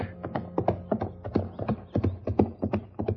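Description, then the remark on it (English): Horse hooves clip-clop in a steady, rhythmic gait, each hoof strike sharp against a hard surface, with no voices present. “The judge had sent a horse for me to use and had left word that I should go on out to the ranch.”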